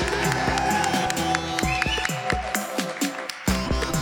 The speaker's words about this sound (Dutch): Hebben jullie allemaal lekker geoefend op het applaus voor Suus? Kunnen jullie nog even extra oefenen op, uh, op Suus? Voor het applaus, applaus voor Suus!